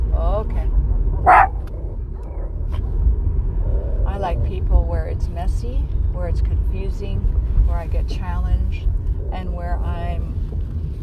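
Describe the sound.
A female dog gives one sharp, loud bark near the start, followed by people talking over a steady low engine-like rumble.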